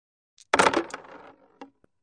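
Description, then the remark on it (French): Six dice, rolled for a skill check in a tabletop role-playing game, clatter onto a hard surface in one loud burst, rattling and settling over about a second, with a couple of small late clicks as the last ones stop. “Donc ça va être un jet de soit résolution, soit astuce, plus expérience de la rue. Donc ça fait 6 dés.”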